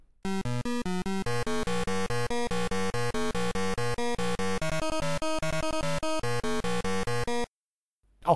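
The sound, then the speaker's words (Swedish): ZX Spectrum title-screen music from a game by Californian company Datasoft, a cut-down version of a C64 game: a harsh, buzzy one-channel beeper melody of rapid stepping notes, loud and continuous for about seven seconds, then stopping abruptly before a voice begins. “Så här lät till exempel musiken på startskärmen till Bruce Lee av kaliforniska Datasoft”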